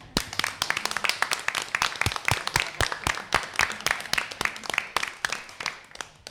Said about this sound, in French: Et si on peut l'applaudir, s'il vous plaît.